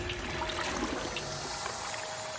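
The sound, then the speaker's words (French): A small stream trickles steadily, a continuous bubbling babble of running water with fine splashing detail and no voices. “Non, arrive au petit ruisseau, justement.”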